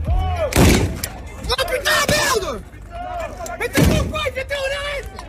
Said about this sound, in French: Voilà, ce qu'on entend, ce sont des grenades de désencerclement, mais on voit aussi à l'image des nuages de lacrymogènes qui finissent par former un épais brouillard.